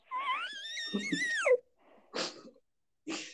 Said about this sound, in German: Das war mein Pferd.